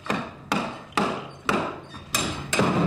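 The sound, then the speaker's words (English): Sharp, repeated impacts of workers' tools striking and prying apart a solid oak staircase lying on the floor inside the shell of a former two-story home being deconstructed, about six blows at a steady half-second rhythm, each followed by a ringing, splintering decay. Loud, with no talking. “watches as a handful of workers split apart wood from a staircase.”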